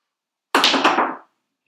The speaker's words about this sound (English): tries to pop that, sneaks out a little fart.